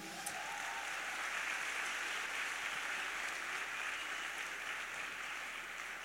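Steady crowd applause fills the whole stretch, a dense even patter of many hands clapping at a constant level with no voices over it.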